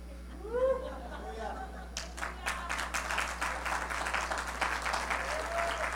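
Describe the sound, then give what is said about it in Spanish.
An audience bursts into applause, a dense, steady wash of many hands clapping that builds quickly and carries on. Before it, a voice is heard briefly, and a low steady hum runs underneath throughout. “No sé si el aplauso es para esas mamás o es para Dios que te dice que te tienes que comer todo tú no vives, déselo fuerte al Señor.”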